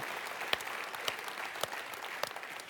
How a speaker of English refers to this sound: Never afraid of clapping for the glory of God in church.